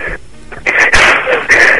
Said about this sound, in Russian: не дыши так в трубку, пожалуйста.